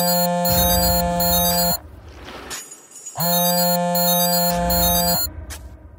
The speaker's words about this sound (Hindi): टकराने के बाद राज बेहोश हो जाता है और सीधे सुबह मोहित की कॉल से राज की नींद खुलती है